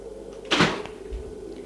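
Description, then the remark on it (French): The door of a chalet, reached from a terrace, opens with a short, sharp creak and rattle, followed by a soft low thud, all over a steady faint background hum with no voices. “Ouvre la porte”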